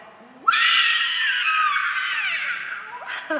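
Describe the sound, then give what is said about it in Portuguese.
A person lets out a long, loud, shrill scream imitating a big cat's shriek, sustained for about three seconds before breaking off. “Olha o grito da pantera.”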